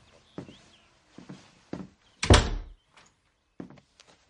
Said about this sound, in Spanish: Cierra la puerta del baño, se acerca al retrete y abre la tapa.